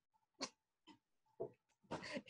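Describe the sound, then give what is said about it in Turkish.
A cat makes a series of short, breathy, snuffling noises, four bursts with brief pauses between, ending in a longer rough rasp. No one speaks. “E, pardon kedim biraz”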